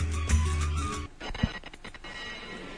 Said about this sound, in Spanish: Bueno, escuchamos el campanil, la campana de, de la Purísima Concepción